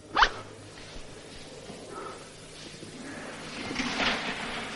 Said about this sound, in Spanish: Después, el Texas está subiendo la cremallera de su pantalón mientras Paco termina de vestirse.